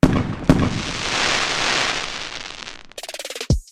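Two sharp booms of fireworks bursting, followed by a long hissing, sizzling crackle, then a quick rapid-fire string of pops and a final bang. Loud, with no voices.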